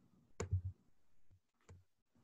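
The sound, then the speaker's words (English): Two crisp computer mouse clicks, about a second apart, as someone clicks back and forth, each followed by a soft low thump, quiet against a near-silent background with no talking. “I'm, I'm actually clicking back and forth.”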